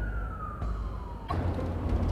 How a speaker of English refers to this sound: One second, we got fire truck coming.